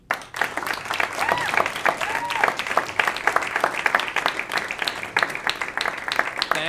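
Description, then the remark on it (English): An audience breaks into sustained applause for author Henry Alford at a live show, dense overlapping claps forming a steady, fairly loud wash, with a few faint voices and cheers mixed in beneath. “Give a big round of applause for Mr. Henry Alford.”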